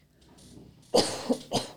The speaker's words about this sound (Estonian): on köhapaus, meil ei ole seda köhanuppu